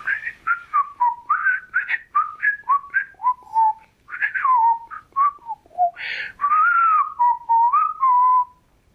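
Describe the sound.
Whistled bird song from a blue jay sitting in its nest at the very top of a greenhouse, with no speech: a lively run of quick chirps and sliding, warbling notes, clear and fairly loud, rising and falling in pitch with brief gaps between phrases.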